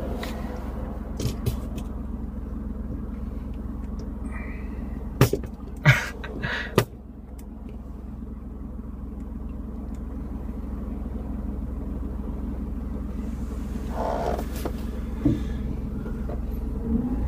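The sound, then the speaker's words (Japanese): Steady low rumble of a car in motion heard from inside, with continuous road noise and a few sharp clicks and bumps partway through; no one speaks. “ドライブしながら収録っていうのがなんかおもろいね。”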